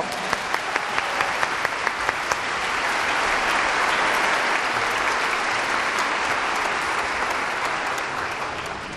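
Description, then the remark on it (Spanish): Scattered claps quickly swell into steady, dense applause from a large audience welcoming conductor maestro Luis Manuel Sánchez onto the stage, holding strong and continuous for several seconds with no one speaking. “Fuerte aplauso.”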